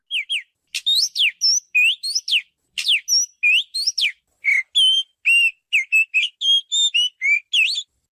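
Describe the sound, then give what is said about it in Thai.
An Oriental magpie-robin sings a rambling string of clear, varied whistled phrases in quick succession, loud, with short gaps between notes and no one talking. “อันนี้คือเสียงนกกังเขียนบ้าน”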